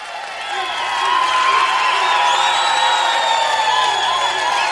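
A crowd applauds and cheers, a dense wash of clapping with whoops and shouts rising over it, loud and sustained for several seconds without letting up.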